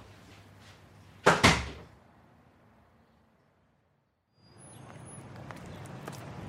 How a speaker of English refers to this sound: She opens the door and leaves.